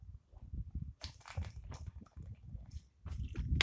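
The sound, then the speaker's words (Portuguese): Someone drinks water, with several wet gulps and swallowing noises coming in an uneven rhythm, plus soft mouth sounds between them and no talking. “Peraí, vou tomar água.”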